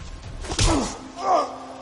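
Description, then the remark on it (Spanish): A single heavy punch to the face of a man held by two thugs lands with a dull smack, followed by a short pained groan, with a second strained vocal sound shortly after. “y otro puñetazo al rostro.”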